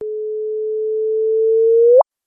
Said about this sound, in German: So hört es sich an, wenn zwei schwarze Löcher verschmelzen.